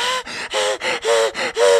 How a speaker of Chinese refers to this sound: 他拼命跑到上一层停车场，一转头没有看到雨衣人跟上来。盛总赶紧找了一辆车做掩护，蹲在车后大口喘气。